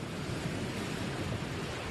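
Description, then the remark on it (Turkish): A steady, dense roar of stormy wind and rushing waves, continuous and unbroken for the whole stretch, with no voices and no distinct individual crashes standing out. “Dalgalar çarpıyor. Rüzgar haykırıyor.”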